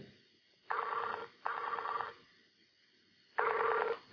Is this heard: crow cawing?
no